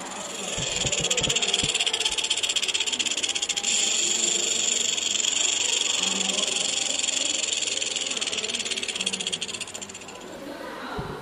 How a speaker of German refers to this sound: Sie klappert, darum heißt sie Klapperschlange.